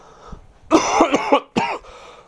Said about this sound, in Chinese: 朋友们不好意思啊，刚刚咳嗽了。第一次听的朋友不要被吓到，不是这个机器坏了，是我真的每次都不剪啊。